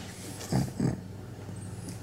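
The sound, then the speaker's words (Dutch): A pug breathing lets out two quick snorting grunts in a row, brief and fairly soft, against a steady low background hum with no one speaking. “Wie goed luistert, hoort de mopshond knorren tussendoor.”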